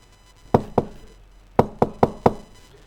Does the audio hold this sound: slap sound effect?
no